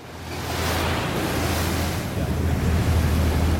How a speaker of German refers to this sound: An der früher belebten Strandpromenade durchbricht nur das Schlagen der Wellen die gespenstische Stille.